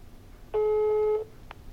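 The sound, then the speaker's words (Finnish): A single steady electronic ringback tone of a phone call to a father in autumn 2021, a flat pitched beep lasting about three quarters of a second, loud and clear over quiet background, followed by a faint click. “Jag ringer pappa för att höra hur det går med hans klagan till jord och skogsbruksministeriet.”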